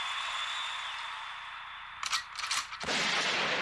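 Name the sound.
gunshot sound effect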